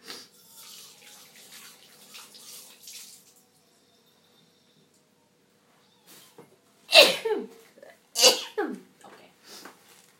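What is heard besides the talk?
sneezing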